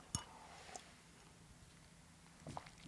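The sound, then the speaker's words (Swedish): Quiet mouth sounds of someone sipping water: a few soft wet clicks and gulps spaced apart over a near-silent background, ending with a sharper click. “Jag ta en klunk vatten.”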